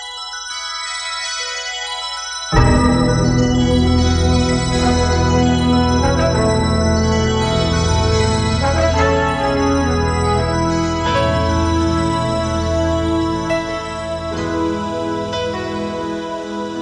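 A remastered recording from a vinyl single of a pop song plays with no talking: a thin, bright opening for a couple of seconds, then a full band with deep bass and steady rhythm comes in loudly and carries on.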